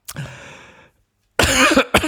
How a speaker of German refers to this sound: Ich muss mal kurz ihr, ah, mich stumm schalten und richtig husten.